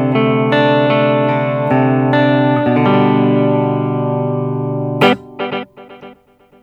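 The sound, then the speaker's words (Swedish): Distorted electric guitar played through two delays in series, the long delay feeding into the short delay, plays sustained, ringing chords, then a sharp strum whose repeats pile up and fade in quick, overlapping delay echoes. No voices. “vi har samma delay-tider, men nu kör vi då det långa delayet in i det korta istället. Seriellt.”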